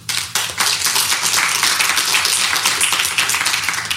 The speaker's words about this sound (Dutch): Mag ik een applaus